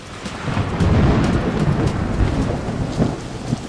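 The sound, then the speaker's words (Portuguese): A heavy thunderstorm with lightning and wind hits a ferry in the Bay of Guamá on the trip from Belém to Macapá, Brazil: steady, dense rain pours down while deep thunder rumbles low and continuous throughout, with no voices present. “Virou um temporal e é aí que eu vi a viola em caco. Raio, trovão e vento e chuva.”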